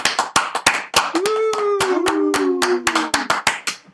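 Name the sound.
applause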